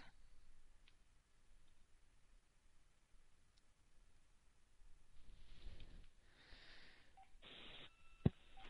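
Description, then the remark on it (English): Telephone line noises with dialing tones as a caller is connected back to a radio broadcast: a soft hiss, then a few broad whooshing bursts, then steady electronic tones and a sharp click near the end. Fairly quiet with no talking. “Hang on connecting her back to the radio. I should just forward this phone directly to the radio.”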